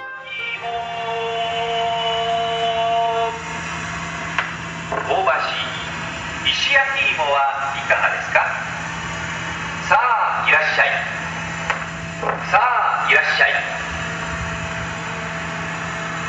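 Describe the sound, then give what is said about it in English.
A roasted sweet potato vendor truck in Japan idles with a steady low engine hum while a drawn-out, sing-song call plays over a loudspeaker in several melodic phrases, clear. “So, from episode 11, here is uh, one of the most famous sounds of Japan uh, from the Finding Japan series, and this is the sound of the roasted potato truck.”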